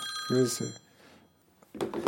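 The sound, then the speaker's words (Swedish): A telephone rings with a bright, steady electronic tone that lasts about a second, overlapping a brief spoken word, then fades before a voice resumes speaking. “Ja, vi tar en liten paus bara när telefonen Ja. ringer.”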